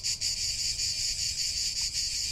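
Cicadas in Provence sing in a steady, shrill, high-pitched drone that barely wavers, a continuous buzzing chorus with faint pulsing and no voices.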